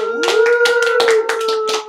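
Several loud hand claps burst out in a quick, slightly uneven rhythm, while a steady, drawn-out howling tone holds underneath for the whole stretch.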